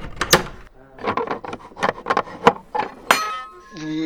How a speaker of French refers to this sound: vous entendez trafiquer derrière des espèces de serrures